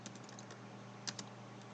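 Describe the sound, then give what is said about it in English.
Quiet, steady keyboard typing with light rapid clicks, a couple of sharper keystrokes standing out near the middle, over a low background hum and no talking. “Oh, well, I keep typing in sorrow now.”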